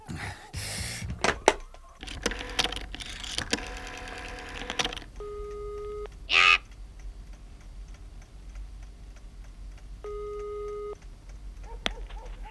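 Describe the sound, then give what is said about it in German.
A telephone is dialed with a quick run of mechanical clicks, then a ringing tone sounds twice down the line, separated by a long pause. Clear, with no voices. “Der erste Detektiv, der um diese Zeit allein in der Zentrale saß und noch recherchierte, griff sofort zum Telefon.”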